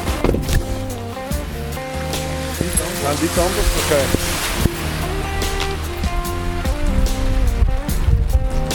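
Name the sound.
rain falling outdoors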